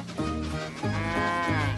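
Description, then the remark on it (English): A cow moos loudly, a long, drawn-out low call that rises and falls in pitch across a couple of joined bellows, with no one talking. “Moo, came the reply.”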